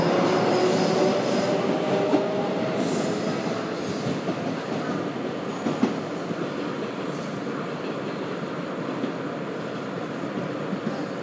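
A local commuter train rolls along on an open-air line during a busy period of passing trains, with a steady, dense rumble and rattle, faint metallic wheel squeals whining above it, continuous and loud throughout with no talking.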